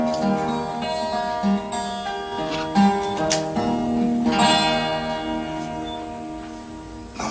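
Instrumental music plays steadily at moderate loudness, with sustained tones, layered harmonies and a few soft accents, the opening bars of a song by a male singer before his singing begins.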